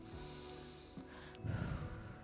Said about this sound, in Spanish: pero yo estaba tranquilito en el patio, respirando así